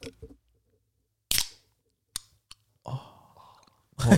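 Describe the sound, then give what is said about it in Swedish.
A Red Bull energy drink can pops open with a short fizzing hiss, followed by a couple of small metallic clicks and a quiet slurping sip, ending with a breathy exhale. “det är dags för Lyssna. dagens Red Bull.”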